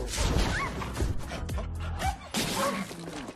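A large dog barks in New York amid a loud, cluttered jumble of crashing and clattering noises, with a sudden burst of commotion near the end.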